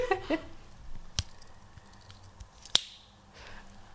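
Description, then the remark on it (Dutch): Two sharp metallic clicks, spaced about a second and a half apart, as a Swiss army knife's blades snap open in front of a microphone, with faint handling rustle and a brief chirpy sound at the start. “Eh, ja, ergens, ik denk halverwege het project, heeft ze aan iedereen een uh, eh, Zwitsers zakmes cadeau gedaan.”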